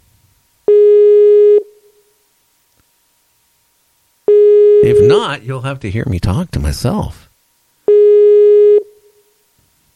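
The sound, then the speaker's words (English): A loud, steady telephone busy tone pulses three times, each about a second long with long pauses between, as a call on Night Dreams Talk Radio fails to go through; a man talks briefly over the second tone. “It's not going through.”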